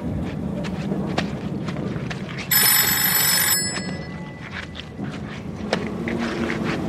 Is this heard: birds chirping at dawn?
no